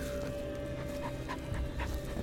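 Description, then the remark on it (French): Dogs pant rapidly and steadily, a continuous rhythmic huffing of breath over a low, rumbling background, with no voices; the dogs accompany gendarmes setting off into the Poulmes forest. “Accompagnés de chiens, ces derniers s'élancent alors dans la forêt des Poulmes vers un lieu dit au nom évocateur, le trou de l'enfer.”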